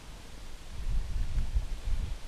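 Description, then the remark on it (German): Wind gusts outdoors at a lake bathing spot on a lightly cloudy day without rain, a low buffeting rumble that swells after the first second and stays steady, with a faint rustle as of leaves underneath. No voices. “kein Regen, es ist schon auch windig.”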